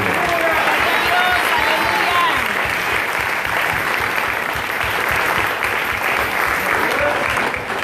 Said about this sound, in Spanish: Y de antemano agradeciendo, un aplauso y un aleluya para